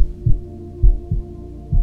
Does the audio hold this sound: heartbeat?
yes